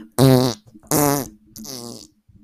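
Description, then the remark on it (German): Three loud farts in a row, each a short buzzy blast lasting under half a second, with brief pauses between them and the last one slightly softer. “Kommt, …, letzter, letzter, letzter Furz.”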